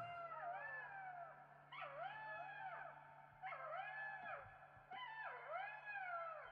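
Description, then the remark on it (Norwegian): A chorus of jackals howling around a town in the evening, in overlapping, wavering wails that rise and fall in several bursts, with a low steady hum underneath. “Nei, sier hun, men jeg hører dem hver kveld, de står rundt byen og uler.”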